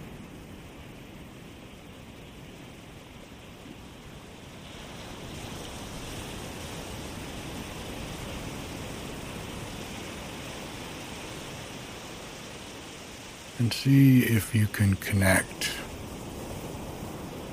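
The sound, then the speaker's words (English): Ocean waves wash steadily onto a beach, a soft continuous surf that swells gently after a few seconds. A calm voice speaks briefly over the water near the end. “Sleep Meditation - Waves On A Beach”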